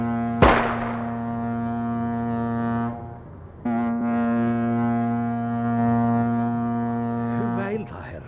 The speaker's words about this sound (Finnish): Kuulittaks työ laukauksen? Minä olin kuulevinaan laivahuuvua alettua pamauksen. Ai, laukausko? Ky- kyllä, minä kuulin, kun laivan torvi huusi.